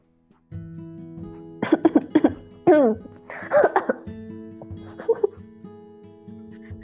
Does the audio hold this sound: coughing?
yes